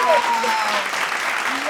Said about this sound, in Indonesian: Eh tepuk tangan dulu dong, tepuk tangan, tepuk tangan